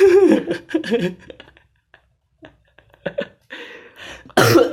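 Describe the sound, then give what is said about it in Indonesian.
A few harsh coughs burst out in uneven clusters, separated by short quiet gaps, with a louder, breathy bout at the very end. “aduh batuk”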